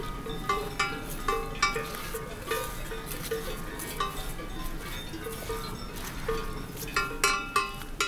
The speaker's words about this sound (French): Des chevaux, des sonailles, Paysages sonores, habituels, des estives.